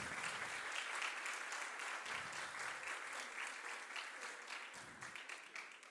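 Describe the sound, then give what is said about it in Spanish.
Loud, sustained applause from a crowd for the group's young men, a dense crackle of many hands clapping steadily for the full stretch with no voices rising above it. “Quiero pedir un fuerte aplauso para todos nuestros muchachos.”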